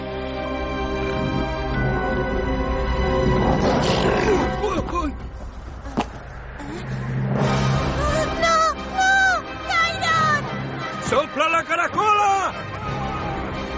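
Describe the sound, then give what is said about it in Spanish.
A fox growls low and menacingly while watching two others from behind, then erupts into a loud scuffle of snarls and sharp, rising yelps as it leaps on them to attack. “el zorro está detrás de Gairon y Plowy mirándoles a la vez que gruñe. De pronto salta sobre ellos”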